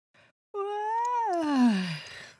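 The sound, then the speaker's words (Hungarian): A voice acts out a big, drawn-out yawn by the story character Dinó: a quick intake of breath, then a long vocal sound that swells and slides downward into a breathy sigh. “Ásított egy nagyot Dinó, aztán felült az ágyában, és álmosan kérdezte Annit.”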